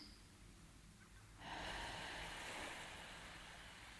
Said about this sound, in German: und du bemerkst, wie der Atem im Takt der Wellen kommt und geht. Wenn die nächste Welle ans Ufer schwappt, atmest du ein und